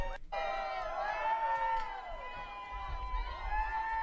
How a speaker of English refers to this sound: What the hell are we listening to? They're applauding. Oh, maybe that they finally get to vote. Chanting vote no.